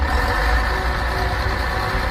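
A large diesel bus engine idles steadily, heard from aboard the bus, a continuous low rumble with a faint mechanical hum layered on top and no voices.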